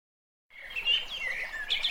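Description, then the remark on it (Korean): The logo jingle of the KBS show 댓글 읽어주는 기자들 begins after a brief silence, opening with bright, twittering bird-like chirps that flutter steadily at a high pitch, with no talking over it. “로고 듣고 가요 로고 듣고 오시죠.”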